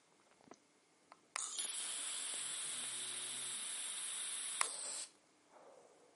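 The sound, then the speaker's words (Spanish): A steady, airy hiss of someone drawing on an e-cigarette with a 0.65 ohm commercial coil in Coil Plus mode at low voltage lasts about four seconds and ends abruptly, preceded by a couple of faint clicks; no voices are heard. “Damos una calada,”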